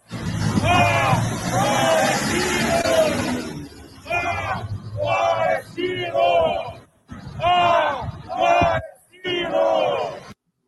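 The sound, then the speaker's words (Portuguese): A large crowd in Porto Alegre shouts and chants together at night in loud, rhythmic bursts, with short pauses between the collective yells, sounding energetic. “Ó, tem uma câmera lá com ring light lá, filmando as pessoas que estavam. Que vergonha. Nesta noite gritando.”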